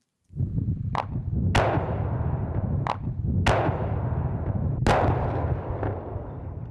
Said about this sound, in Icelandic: Enn stendur vindmila í þaukabænum þrátt fyrir að sprengjusveit landheilsgæslunar hafi reynd fjórum sinnum að sprengja hana í dag.